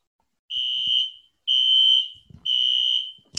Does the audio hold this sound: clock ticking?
no